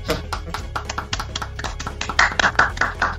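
A burst of applause for a newly promoted team member: quick, irregular claps from several hands, sharp and steady throughout, swelling a little louder toward the end with a brighter edge.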